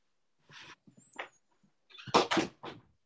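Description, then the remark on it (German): A door is handled and shut as someone leaves: a few quiet clicks and scrapes, then a louder thudding close with a brief rattle. “Also ich weiß nicht, ob er die Tür hört, aber das werden wir ja sehen.”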